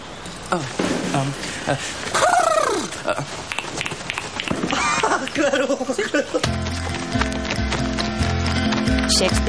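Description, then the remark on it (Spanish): A horse, ridden outside a castle, gallops with rapid, irregular hoofbeats and lets out a couple of loud, wavering neighs, before the scene shifts into steady instrumental music with a pulsing rhythm. “cabalga por las afueras del castillo montado en un”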